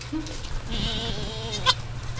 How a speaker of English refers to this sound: Bowley takes me to visit the farm's newborn goats.